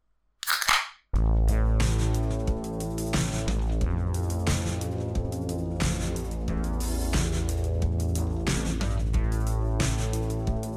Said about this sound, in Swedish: han vill öppna en öl och han vill göra det med det klassiska ljudet.